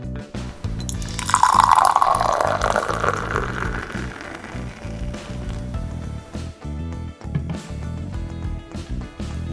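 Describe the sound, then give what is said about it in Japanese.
Super Dry beer from a freshly opened can pours steadily into a glass, a bright foamy gush swelling early then settling into a softer, bubbling trickle with fizzing. “最初はねスーパードライの方からねついで飲んでいきたいと思いますそれではね缶開けていきますも通りいい音が開くでしょうかさあ開けてじゃあついでいきますね”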